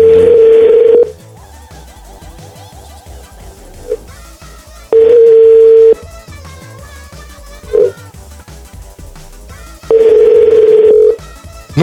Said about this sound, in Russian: Тут теряем не только время, я теряю, видите, теряю навыки набора телефона. Сейчас, сейчас, сейчас.